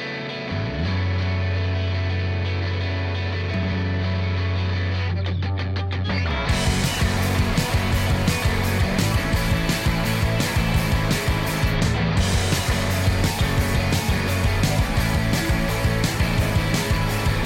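A rock song opens with a low, buzzing sustained drone for about six seconds, then crashes into a loud full band of heavily distorted guitar and steady pounding drums, with no singing.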